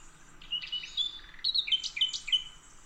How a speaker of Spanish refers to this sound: Ese que está cantando es un ruiseñor de verdad.